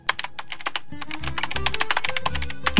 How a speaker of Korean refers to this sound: 저의 키보드 소리에 둘은 조용해졌는데요.